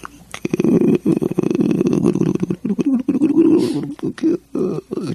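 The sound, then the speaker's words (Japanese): A low, gurgling rumble like a growling stomach churns steadily for several seconds and then breaks into choppier bursts, fairly loud. It seems to be a voice imitating a stomach rumbling louder and louder. “どんどん大きなお腹の鳴る音が聞こえてくる”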